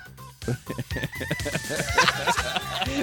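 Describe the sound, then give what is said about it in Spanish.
Short, choppy chicken clucks repeat rhythmically over a steady electronic beat, the bird sound cut and looped like a sample woven into a 1990s dance track. “El, error está en meter una gallina entre medio.”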